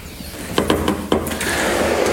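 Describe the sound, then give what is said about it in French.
The door of the director's office of the Monsieur Vincent association's establishments in Moselle is pushed open with a quick series of mechanical clicks and knocks from the handle and latch, followed by a steady hiss of room noise as it swings wide. “Alors, je pousse la porte du bureau de Madame la directrice,”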